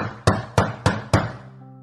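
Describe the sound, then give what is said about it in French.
Four loud, heavy knocks on a door in quick, even succession, each a sharp thud, followed by a faint lingering ring as the sound dies away. No voices. “Un certain vendredi soir, alors que la maman du petit Meir Simcha venait d'allumer les bougies de Shabbat, on entendit des coups très forts à la porte.”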